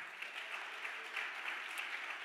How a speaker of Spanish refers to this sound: El otro aplauso fuerte.